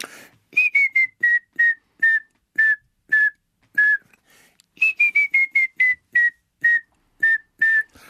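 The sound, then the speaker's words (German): A person whistles two series of clear notes imitating a grey-headed woodpecker call to lure the birds, each series dropping in pitch and slowing toward the end, fairly loud with no talking. “Beim Grauspecht ist das Schöne, dass wenn man ihnen vorpfeift, äh, die sehr, sehr positiv darauf reagieren und äh, in der Regel sofort herbeigeflogen äh, kommen.”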